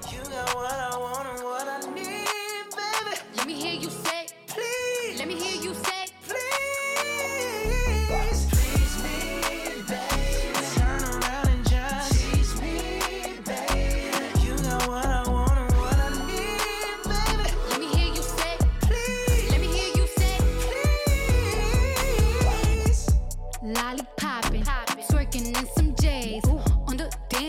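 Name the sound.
song played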